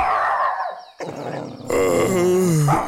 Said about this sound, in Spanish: Los gruñidos de la perrita despertaron a Guillermo. Salió del cuarto y la encontró observando fijamente la escultura, con una mirada que jamás le había visto.